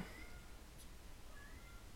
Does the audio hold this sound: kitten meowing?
yes